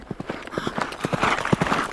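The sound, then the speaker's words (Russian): Horse hooves clip-clop in a steady, fairly quick rhythm on a hard surface, about a dozen distinct, clear strikes, with no voices. “А как вы думаете, если, например, человек путешествует на коне?”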